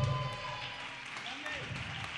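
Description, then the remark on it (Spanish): An audience breaks into steady applause for the axolotl of a band, a dense wash of many hands clapping at an even loudness for the whole couple of seconds, with faint cheering mixed in. “Oye, y un fuerte aplauso para el ajolote acá presente de ….”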